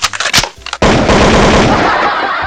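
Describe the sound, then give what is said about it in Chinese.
A few scattered sharp bangs, then a loud, sustained burst of rapid automatic gunfire rattling on without a break until the end. “劫匪一愣，然后默默的掏出了枪。”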